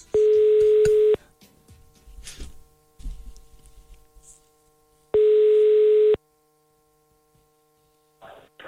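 A telephone ringing tone heard down the line while calling a seller about a trailer advertised for sale: two loud, steady one-second buzzing tones about four seconds apart, with faint rustling and murmured sounds in the gaps between them.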